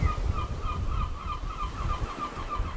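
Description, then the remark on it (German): A few seagulls call overhead on a windy, sparsely visited beach far from the busy resorts of Sassnitz and Binz, in a steady string of short, repeated cries, moderately loud above a constant low rumble of wind or surf. No one speaks. “Über mir ein paar freche Möwen, die anders als ihre Kollegen an den mit Menschen dicht bevölkerten Orten Sassnitz oder Binz nicht darauf lauern, einem ahnungslosen Urlauber das Fischbrötchen direkt aus der Hand zu klauen.”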